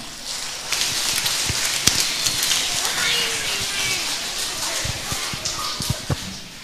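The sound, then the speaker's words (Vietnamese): A large crowd claps loudly and steadily for several seconds, a dense crackle of many hands that holds its level before tapering slightly at the end. “cho một tràng vỗ tay thật là lớn để khích lệ chung nào”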